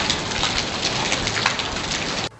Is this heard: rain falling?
yes